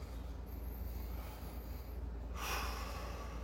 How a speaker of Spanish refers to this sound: Les invito a tomar una respiración profunda, por favor.